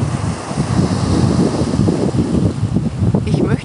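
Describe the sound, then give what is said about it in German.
Sea waves wash steadily against the Red Sea shore before sunrise, a continuous low rumbling surge, with gusts of wind buffeting the microphone throughout. “Ja, ich sitze hier schon am Roten Meer und warte auf den nahenden Sonnenaufgang und lausche dem wundervollen Meeresgesang.”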